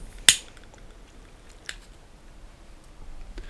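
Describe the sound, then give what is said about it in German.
A lighter that at first fails to work is flicked to light a candle: one sharp, bright click, then a softer strike over a second later and a faint tick near the end, with quiet hiss between and no voices. “Natürlich funktioniert das Feuerzeug in dem Moment nicht.”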